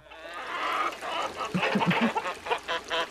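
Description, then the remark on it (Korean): At night, in a place with no lights, a steady chorus of birds and frogs calling together, with a run of short, repeated croaking calls rising over a constant background of chirps. No one speaks. “어, 야, 뭐냐, 왜 이렇게 안 나오냐, 불빛도 없고 소, 새소리만 개구리 소리냐?”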